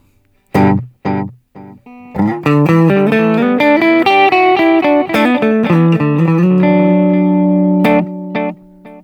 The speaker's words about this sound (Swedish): Och så här låter då delayet med bara 500.